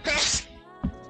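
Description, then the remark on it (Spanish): A single sharp sneeze bursts out, loud and breathy, then fades into a quieter tail with a faint voice or shuffle near the end. “Salud.”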